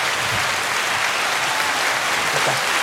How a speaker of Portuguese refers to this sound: Então, sejam bem-vindos, os nossos convidados. Grande salva de palmas